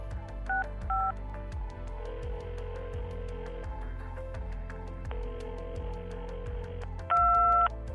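Telephone keypad tones: two quick dual-pitched beeps early on, a steady held tone later, then a louder, longer beep near the end, all over a low droning hum with no talking.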